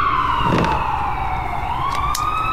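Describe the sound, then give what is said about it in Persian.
An ambulance siren wails steadily, its pitch sliding down and then rising again, loud over a rumble of road traffic, with a few brief clanks partway through. “هنوزم از صدای آمبولانس هنوزم از صدای آمبولانس مسترب میشم باورم نمیشه”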